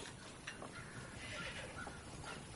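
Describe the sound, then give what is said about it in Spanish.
A horse shuffles and stamps, with a few snorts and soft clopping hooves over a steady, noisy outdoor background while a magistrate dismounts and ties it to a hitching rail. “El magistrado desmonta de su caballo y lo ata al amarradero.”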